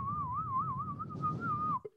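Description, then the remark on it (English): A bird watcher whistles a continuous, warbling bird-call imitation, a wavering mid-high tone sustained for nearly two seconds over a low background rumble before stopping abruptly. “But I would do little bird calls, hoping that a little bird.”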